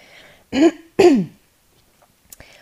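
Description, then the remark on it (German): Two short, forceful throat-clearing bursts in quick succession, fairly loud, followed by quiet breaths and a faint click; no talking. “Sorry, ich muss nochmal räuspern.”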